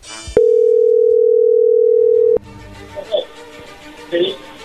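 A telephone ringing as an outgoing call is placed: one loud, steady, mid-pitched ring tone holds for about two seconds, then cuts off abruptly, leaving quiet background noise with a few faint muffled sounds.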